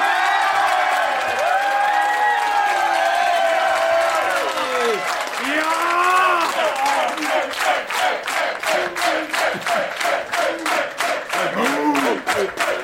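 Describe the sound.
A crowd cheers and whoops with raised voices, then the audience breaks into loud, steady rhythmic clapping in unison that continues for several seconds alongside the shouting.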